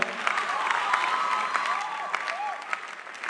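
A crowd claps steadily for a few seconds, dense overlapping applause with some sharper individual claps, plus faint cheering voices rising and falling in the background.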